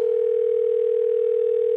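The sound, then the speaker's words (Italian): A steady telephone dial tone hums continuously and evenly, loud, with no voices, as an outgoing call to an electrician waits to connect. “Prima telefonata all'elettricista.”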